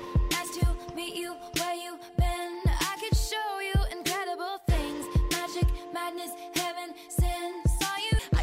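A pop song, played as a listener's request, plays loud and clear, with a steady punchy drum beat, layered synth chords and a bright melodic line running over the top throughout.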